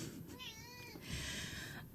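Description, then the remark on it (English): A cat named Kitten, upset, lets out a single drawn-out meow that rises and falls, then trails into a rougher, breathy cry. It sounds fairly quiet, with no voices. “And this is upsetting Kitten a lot.”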